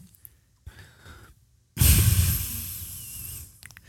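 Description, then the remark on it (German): A deep, exaggerated sniff drawn hard through the nose, loud, lasting nearly two seconds after a softer preliminary breath, with no talking. “Kann ich, aber warte, ich, ich schnief jetzt mal tiefer.”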